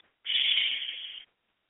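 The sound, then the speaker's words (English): A single steady hissing "shh" breathed out by a human voice on an exhale during a breathing exercise for the liver, lasting about a second, fairly loud, with silence before and after. “And when we exhale, we exhale out any anger and resentment, and we exhale with the sound shh.”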